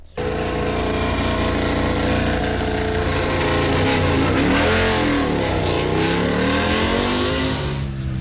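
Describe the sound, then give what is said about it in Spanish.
Pedro Acosta's new KTM racing motorcycle engine revs loudly and continuously during testing at the Sepang circuit, its pitch rising and falling in sweeping waves before climbing again toward the end, with no voices. “Entre los debutantes, nuestro bicampeón, el español Pedro Acosta, con su nueva KTM que suena así.”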